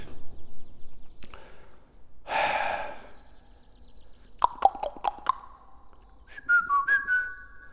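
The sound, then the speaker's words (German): A sharp burst of breathy noise, then a quick run of loud claps or knocks that ring out with a lingering echo in a tall space built entirely of reinforced concrete, estimated at about 25 metres high, followed by a few short whistled notes that trail off into reverberation. No one talks. “Echo. Klasse, oder?”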